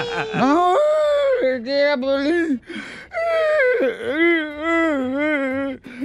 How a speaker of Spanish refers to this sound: Ahora, ¿por qué lloras? De veras estás llorando yo del chiste que se aventó de mi esposa y de, mi persona.